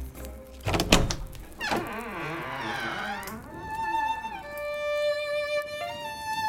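A solid thunk, then a drawn-out wavering creak like a door swinging open, fading into steady ringing tones at moderate loudness. No one speaks.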